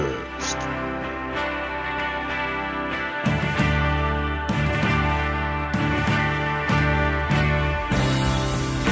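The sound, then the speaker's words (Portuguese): Loud music plays continuously, with rich sustained chords and a steady beat marked by regular strong hits about once a second. No one speaks over it. “Você está ouvindo música.”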